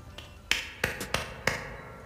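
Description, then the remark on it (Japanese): Dry, crisp hand claps, about five sharp bright strikes in a slow, slightly uneven rhythm after a faint first tap, heard alone with no talking and only a light background hiss. “乾いた拍手の音とともに真昼の空間は深夜へと様変わりした”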